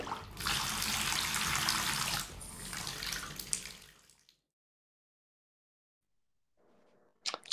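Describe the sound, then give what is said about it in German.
Cold water gushes loudly from a bathtub tap for about four seconds, then cuts off into silence; a faint bit of splashing or movement follows near the end. “Wenn ich jetzt noch ein Tröpfchen von dem kalten Wasser haben könnte”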